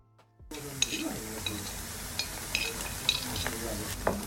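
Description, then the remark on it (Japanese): Meat and its sauce sizzle on a yakiniku grill at the Tokyoen yakiniku restaurant, a steady, crackling hiss that starts after a brief silence, with occasional sharp clinks of utensils and faint voices murmuring underneath. “実はそのタレが蒸発する音でお肉を焼くタイミングを決めたりするんです”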